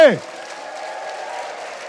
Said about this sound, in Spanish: Si lo crees, dale un fuerte grito de júbilo al Señor. Vamos más fuerte.